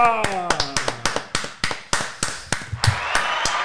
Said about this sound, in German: Da kommt auch nochmal der Applaus.